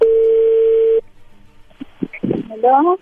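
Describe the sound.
A steady, mid-pitched telephone connecting tone holds for about a second, then cuts off, followed by brief clicks and a voice answering on the line.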